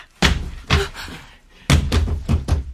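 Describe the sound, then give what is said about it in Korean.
Heavy pounding on a door by people demanding it be opened and threatening to break in: two loud booming blows with a pause between, then a quicker run of four more forceful thuds, with no voices. “문 여세요! 부수고 들어갑니다.”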